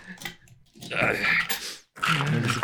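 Crinkly, scraping rustles of a sheet of paper being tugged free in two long bursts, with a brief pause between and some small straining vocal sounds mixed in.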